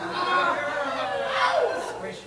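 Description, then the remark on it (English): A live convention audience at EvilCon erupts in a burst of cheering, whooping and hollering, many voices overlapping loudly and steadily for a couple of seconds, with scattered laughter mixed in. “Living audience, please make yourselves known. Make some noise hoot, holler, scream, turn yourselves inside out in a noisy fashion.”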